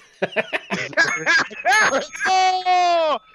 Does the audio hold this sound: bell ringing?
yes